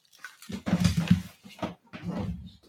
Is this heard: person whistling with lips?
no